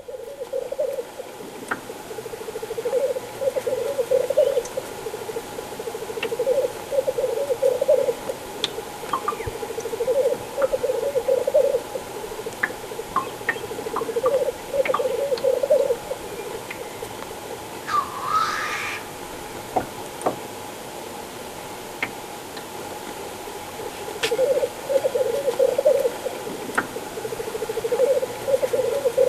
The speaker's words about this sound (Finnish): Siellä vähän tippuu vettä jostakin mm. ja tulee tuo tuollainen blip blup ääni.